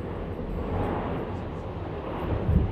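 airplane

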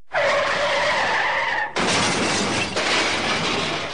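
car skidding and crashing

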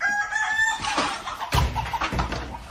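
rooster crowing

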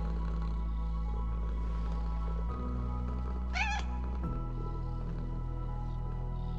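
cat meowing

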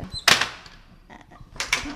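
hand loom weaving

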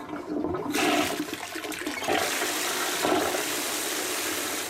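toilet flushing

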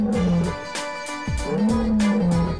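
lion roaring

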